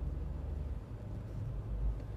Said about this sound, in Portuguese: trabalho agora, tá um trânsito aqui.